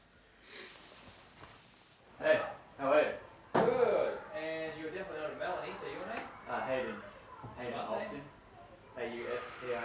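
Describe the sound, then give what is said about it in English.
A door opens and bangs shut, with a few soft rustles and thumps beforehand, then a person starts talking. “I'm uh, getting a knock on the door.”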